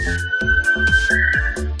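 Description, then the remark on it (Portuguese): A night watchman blows a whistle: a steady, shrill blast holds unbroken for a couple of seconds, moderately loud, over a rhythmic pulsing of low, hollow knocks in the background. No one speaks. “ter um guarda noturno apitando aqui.”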